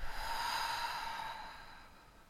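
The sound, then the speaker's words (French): A long, airy breath pushed out through the mouth after a two-part inhale through the nose in a breathing exercise, fairly loud, like a slow sigh that gradually fades away. Nobody speaks. “Donc on inspire par le nez en deux fois, expire par la bouche.”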